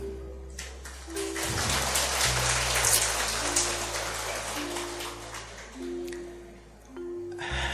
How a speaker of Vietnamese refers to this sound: mà khi thầy hỏi là ai cùng với Bồ Tát ước mơ xây dựng một thế giới thánh thiện thì thấy một số người vỗ tay